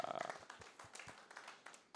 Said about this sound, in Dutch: Hé jongens, ik vond het even applaus verdiend, die Beamer mensen. Vind je niet? Die vinden dat applaus verdienen.